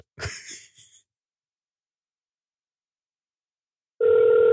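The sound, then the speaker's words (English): A short breathy sigh, then a few seconds of silence before an outgoing phone call's ringing tone starts, a loud, steady electronic hum that carries on to the end, from a phone connected by Bluetooth to a soundboard. “I hooked my phone Bluetooth up to the soundboard and I'm going to try this call one more time, but I guarantee you it's not going to work.”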